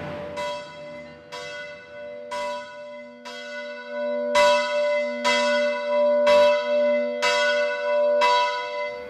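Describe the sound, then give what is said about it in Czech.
Church bells of the Church of St. Lawrence (kostel svatého Vavřince) ring in a steady rhythm, about one stroke per second, each clang leaving a sustained, humming resonance; the peals grow louder midway through, with no voices present. “Carlos to přežil ve zdraví a vydává se do kostela svatého Vavřince.”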